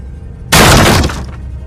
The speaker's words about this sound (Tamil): இதை கவனித்த ஜானோட நண்பர்கள் அந்த வீட்டோட கதவை உடைச்சு உள்ளே போகிறாங்க